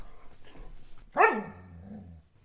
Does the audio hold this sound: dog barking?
yes